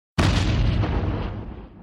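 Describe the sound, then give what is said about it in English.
Crow's spaceship rear thruster explodes during a high-speed starship chase, bursting in suddenly with a heavy crunching bang into a starburst of metal and flames, then a dense roar of debris and rumble slowly fades over about two seconds. No voices. “Justice is sweet and musical, Grace snarls, and there's a great crunching bang as Crow's rear thruster explodes in a fireworks starburst of metal and flames.”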